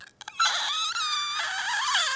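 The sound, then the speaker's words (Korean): A voice makes a shrill, high-pitched, wavering whine, imitating a mosquito-repelling sound that is being patented and that dogs are said to react to. It starts after a brief pause and is held loudly for nearly two seconds, its pitch sliding and wobbling. “제가 또 모기 퇴치하는 그 네. 소리를 지금 제가 특허내려고 하지 않습니까?”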